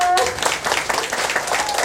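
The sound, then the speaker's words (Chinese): A crowd applauds at a company event as a speaker taking the stage asks for applause: a steady wash of many hands clapping at once, dense and fairly loud, holding evenly for about two seconds after a brief tonal note at the start. “第一次公司安排我上台，超紧张的，给我一个掌声。”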